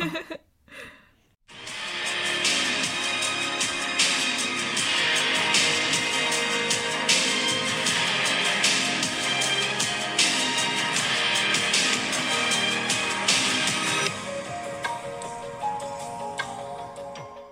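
An instrumental pop song plays with no vocals, a bright, dense wash of sustained sound after a brief quiet start, thinning near the end into softer, calmer melodic tones.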